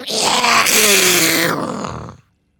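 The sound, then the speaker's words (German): A voice imitates a creature's drawn-out scream coming from the north, a single loud, rasping wail with a wavering pitch that rises and then trails off after about two seconds, heard on its own. “Oh ja, und du hörst aus Norden jetzt wieder diesen, diesen Schrei.”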